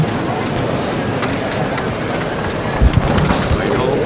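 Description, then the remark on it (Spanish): A procession float's wooden legs (zancos) strike the ground as the float is set down and slips on wax-covered pavement and painted pedestrian crossing, a brief, dull low knock heard once over a steady wash of crowd noise and murmuring voices. “Los zancos cuando llega al suelo. Han resbalado.”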